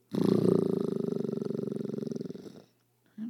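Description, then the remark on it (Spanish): A person imitates a lion's roar with a single long, rumbling growl lasting a couple of seconds, loud, with a rhythmic pulsing throat vibration before it trails off. “quedó bien ese rugir, ¿verdad?”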